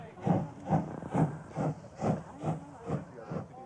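A standing steam locomotive hisses steadily, with a regular pulsing puff repeating about twice a second, fairly close and moderately loud, with no voices.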